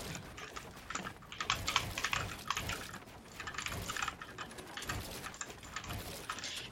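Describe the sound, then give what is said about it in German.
Rapid, continuous computer keyboard typing with scattered mouse clicks, moderately quiet, clattering in uneven bursts with no one speaking. “Also jetzt hört ihr mal wahrscheinlich meine Tastatur und Maus.”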